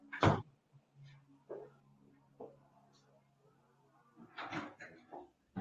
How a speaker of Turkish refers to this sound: Bir saniye camı kapatıyorum çünkü biraz gürültü var.